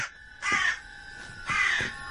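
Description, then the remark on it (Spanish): A crow perched on a bed caws twice, two harsh, raspy calls about a second apart, clear over a quiet background with no one speaking. “Arthur mira al cuervo que se posa sobre la cama.”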